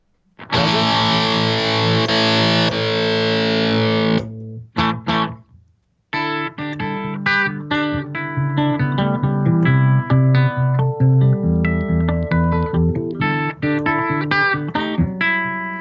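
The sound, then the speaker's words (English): Electric guitar on the bridge pickup, bright and driven with distortion: a sustained ringing chord, a short pause, then a loud stream of picked notes and chords with no talking. “So that basically that's bridge pickup.”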